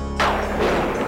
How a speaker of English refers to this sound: That particular piece of thunder is called castle thunder, and it's a staple sound effect